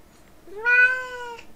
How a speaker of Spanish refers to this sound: Y que ya la baje que porque se está enojando. Bueno, después de la interrupción de mi gata, está.